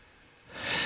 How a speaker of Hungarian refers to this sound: megszakadt a telefon, de közben a műsoridőnk is lejárt